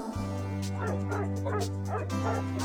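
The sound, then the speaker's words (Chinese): A small dog, Wendelin, Ms. Dupont's little dog, barks in a quick series of high, yappy yips, roughly four or five in a row, over a steady low hum that continues throughout. “文德林是杜邦女士的小狗，她呀特别喜欢周末的时候和杜邦女士一起去郊游。”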